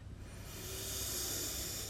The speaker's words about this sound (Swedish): Och vi tar några djupa andetag för att låta den här telluriska drakelden stiga upp.